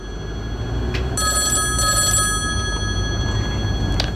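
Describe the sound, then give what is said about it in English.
A telephone rings in two bright, high-pitched trilling bursts with a brief gap between them, over a steady low rumble, with no one speaking. “Now, I need to call Reginald, but I need to call Reginald as Paul as well.”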